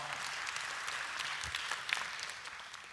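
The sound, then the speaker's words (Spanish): Steady applause from an audience, a dense wash of many hands clapping at an even level for several seconds, with no one speaking over it. “si va a aplaudir, aplauda bien, no aplauda medios ahí.”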